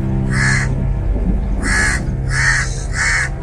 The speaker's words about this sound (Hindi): दिन के वक्त कौए की काव काव आम बात है